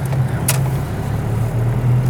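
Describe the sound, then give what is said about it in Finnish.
A car drives up through a concrete parking garage toward the top floor, its engine a loud, steady low drone throughout, with one brief hissing burst early on; nobody speaks. “Ajetaanko oikein ylimpään kerroksen?”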